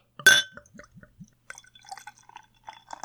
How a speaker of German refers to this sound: Da kann es draußen regnen, stürmen oder schneien. Regnen, stürmen oder schneien, wir schenken uns ein Bierchen ein.